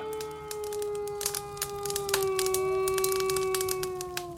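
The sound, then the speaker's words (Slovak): Dogs howl in the distance outside a window, a long, steady, drawn-out wail that slowly sinks in pitch, with faint scattered clicks and crackles throughout from a fire dying down in a fireplace. “Počuť len vzdialené zavíjanie psov niekde za oknom a jemné praskanie ohňa, ktorý dohára v kozube.”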